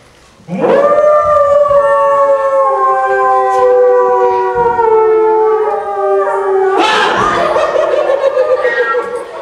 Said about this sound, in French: que je ne suis pas fou, j'ai bien cru entendre le loup.